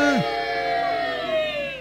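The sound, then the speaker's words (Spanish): A crowd boos: a sustained, droning boo held steadily for almost two seconds after a brief falling vocal slide, sounding like a few voices jeering together. “Una abucheo.”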